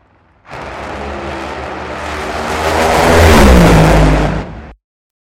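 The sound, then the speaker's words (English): Roaring engines of two drag racing funny cars, with John Force winning over Ron Capps, blast past, the noise swelling to a loud peak and then its pitch sliding downward as the cars speed away, cutting off abruptly after a few seconds. “So those were two funny cars that you just heard, and that was also John Force getting the win over Ron Capps.”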